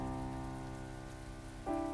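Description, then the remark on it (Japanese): Steady rain at night pattering on asphalt in front of a convenience store by a station, a dense continuous hiss of drops with a heavy, loud sound, no talking, holding even throughout and swelling slightly near the end, with a faint tonal hum underneath. “その日の夜の雨は不思議だったアスファルトを叩く音が重く大きい”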